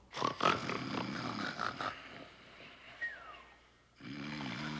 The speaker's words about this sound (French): Bientôt, des Waskaïgana, des Papakiwe Anikamika, des Atakwasuna et des Machigin, les ronflements des dormeurs se mirent à monter. En peu de temps, ces ronflements formèrent un ensemble de sons puissants, si puissants